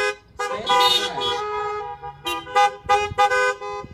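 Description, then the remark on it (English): Several car horns honk in response, starting with a long sustained blare and followed by a string of short, punchy toots from different horns, loud. “Honk if that's a good, good thought there.”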